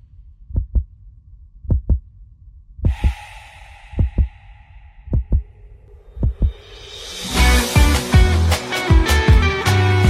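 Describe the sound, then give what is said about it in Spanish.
A song played on a radio program opens with paired, heartbeat-like low thumps in a steady rhythm under a faint sustained tone, then full, loud music with dense instrumentation bursts in for the final few seconds. “Bueno, eh, vamos a escuchar un poquito de música eh, y retornamos.”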